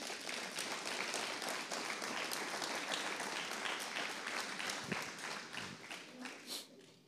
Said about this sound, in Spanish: porque no le das otro aplauso al rey?